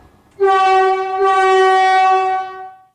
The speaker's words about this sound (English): We're on board the first one to arrive from Korea. It's undergoing extensive testing here in Richmond. In case you're wondering, it has that new train smell, and each car features a horn, a very loud one.